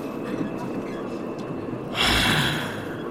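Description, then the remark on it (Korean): Steady rumbling of a subway car in motion, a constant low roar that swells into a louder, hissing surge near the end, with no voices. “오늘도 전철 투어를 하는군.”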